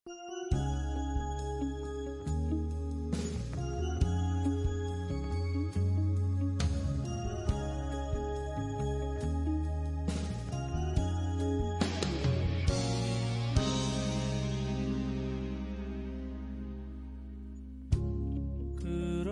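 A pop song plays on the radio at a steady, even level, with full sustained chords and bright chiming accents. No voices are heard. A sharp hit lands just before the end.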